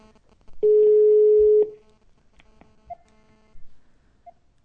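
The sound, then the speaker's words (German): A phone call to a home number, placed by voice command, connecting: a loud steady beep lasting about a second, followed by scattered clicks and faint crackling noise on the line, with no one speaking. “und dann wird die Verbindung aufgebaut, aber das gibt so unschöne Geräusche, dass ich das jetzt äh, Ihnen irgendwie ersparen möchte.”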